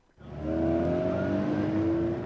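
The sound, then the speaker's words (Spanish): A car engine revs up loudly and holds a strong, droning roar with a slowly rising pitch for about two seconds, alone with no voices. “El tráfico a esta hora.”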